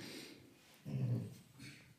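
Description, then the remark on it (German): A dog whines and whimpers softly close by, one low, drawn-out moan swelling in the middle of an otherwise quiet moment, with faint snuffly breathing and no talking. “Genau, mein Hund äh, quengelt hier gerade neben mir rum, aber das soll uns nicht weiter stören.”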